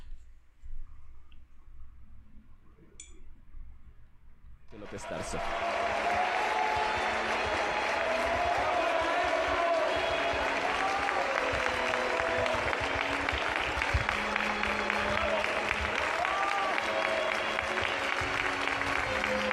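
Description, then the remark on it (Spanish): After a few seconds of quiet murmuring, a large crowd bursts into sustained, dense applause with cheering and scattered shouts as the coffin of López Tarso arrives for his farewell at Bellas Artes, staying loud and steady until the end. “Y cuando llegó el féretro, pues evidentemente los aplausos y la euforia eh, se hizo presente.”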